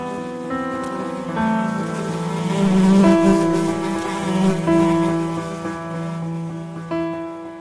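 Flies buzz steadily for several seconds, their overlapping drones close and fairly loud, the pitch shifting every so often as they circle. No one speaks.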